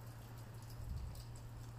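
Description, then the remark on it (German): A faint, steady patter of light rain showers falling continuously in a big city, with a low droning hum running underneath and no voices. “Stehend hier mit leichten Regenschauern und Einsamkeit einer Großstadt.”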